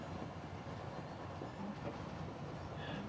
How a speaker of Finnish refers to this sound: Ennen kuin jatketaan tästä pidemmälle, tehdäänpä pieni kuvitteellinen junamatka kannaksen halki.